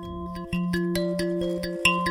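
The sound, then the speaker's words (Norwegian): A mbira thumb piano, the national instrument of Zimbabwe, a small wooden instrument with metal tines, plays a steady, repeating pattern of plucked metallic notes that ring and overlap with a faint buzz, with no voices. “Dette er lyden av en mbira, nasjonalinstrumentet i Zimbabwe.”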